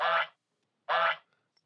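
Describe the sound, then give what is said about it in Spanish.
Two loud, harsh goose honks, each short and raspy, separated by a brief pause of silence, with no talking around them. “como ganso, ¿no?”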